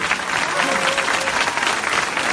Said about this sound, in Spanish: Fuerte aplauso para Víctor Hernández y para Rodolfo Hernández.